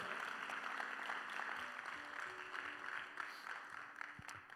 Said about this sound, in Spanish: ¿Le puede dar un aplauso fuerte al Señor? Come on.